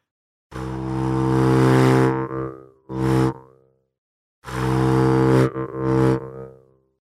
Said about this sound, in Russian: Также в органа можно начинать играть, э, не ударяя по язычку в органа, а просто вдыхать в себя воздух, пропуская сквозь язычка в органа, тогда тоже будет звук такой, знаете, как будто шершень летит.